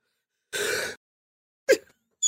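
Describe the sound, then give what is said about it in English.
A sharp, breathy intake of air, a pause, then a sudden stifled sneeze burst, followed by another brief sniff-like burst. No one talks. “oh god, why sneeze now.”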